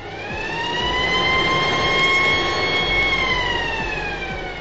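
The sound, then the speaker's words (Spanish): A loud alarm siren sound effect, used as a spoiler warning, wails steadily for several seconds, a sustained, slightly wavering electronic tone with no one speaking over it. “A partir de aquí, ponemos en activo nuestra alarma de spoilers”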